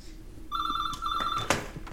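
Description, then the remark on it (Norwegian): A telephone rings once as a call is placed to the Grand Hotell, a steady electronic trill lasting about a second with a brief flutter midway, then cuts off with a soft click. No one speaks. “Nå ringer jeg bare for å høre om at det er i orden.”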